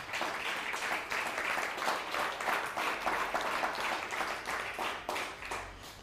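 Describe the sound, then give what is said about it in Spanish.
An audience applauds the Almighty steadily for several seconds, a dense, even wash of many hands clapping at once, sustained and fairly loud before easing slightly at the end. “Baruch Hashem, dale un fuerte aplauso al Todopoderoso.”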